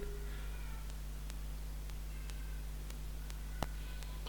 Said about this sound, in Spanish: Y mi gata sigue gritando ya. No voy ir ni en pedo a callarla.